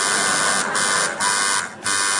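A quiz game buzzer blares in a loud, harsh, steady drone as contestants buzz in, cutting out briefly three times before resuming. No voices are heard.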